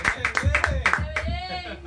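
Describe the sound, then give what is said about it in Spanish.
Brisk, evenly spaced hand claps, about seven or eight sharp slaps in under two seconds, applauding the first programme going out live, with voices murmuring underneath and a held vocal tone toward the end. “Un aplauso, estamos en vivo, el primer programa.”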